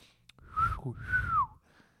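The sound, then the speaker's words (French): A shaky, breathy wolf whistle: a rising note, a brief break, then a long falling note. The pitch wobbles, and a lot of air hiss comes through. “Là, c'est le gars qui siffle, genre une fille jolie, dans un vieux film, ça, pas le faire.”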